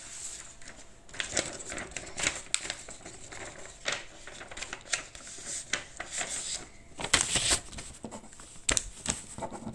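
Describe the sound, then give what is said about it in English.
Crisp rustling and crinkling of paper being handled and shuffled, with irregular bursts of scraping and flicking that come and go throughout, louder near the end, and no voices. “Okay, here's a new paper.”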